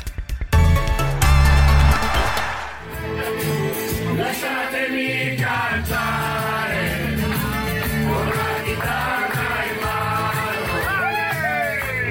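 A packed tram in Lyon, France, full of Italian rugby fans arriving for the Rugby World Cup, singing loudly together, continuous, with whoops and shouts rising over the chant throughout.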